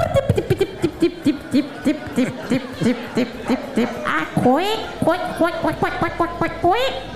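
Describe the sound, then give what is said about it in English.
A female beatboxer's voice makes rapid beatbox-style bursts, then switches to a run of loud, nasal quacking calls, several in quick succession, imitating a duck. “Okay, now she stopped beatboxing and now she's just fucking quacking”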